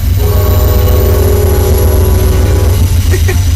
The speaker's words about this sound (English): I don't see trains by my house, that's for sure. But there's always a train going by here.